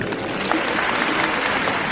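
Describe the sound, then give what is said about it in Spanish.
Steady, dense applause from an audience at an award ceremony, a continuous wash of many hands clapping at even loudness throughout, with no voices standing out. “El aplauso del respetable.”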